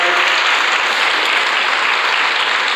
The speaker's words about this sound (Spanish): Denle un aplauso al Señor, por favor, en esta tarde.